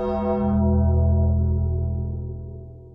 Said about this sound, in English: And remember, when the bell tolls